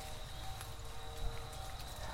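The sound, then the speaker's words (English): Soft, scattered rustling and light crackles of dry leaves falling and brushing through the middle of the woods in late October, over a low steady rumble with no one speaking. “All the noise you hear, by the way, is just leaves falling.”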